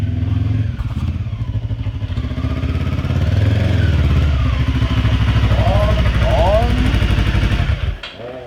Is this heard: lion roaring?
no